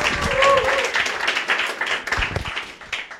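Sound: audience applause and cheering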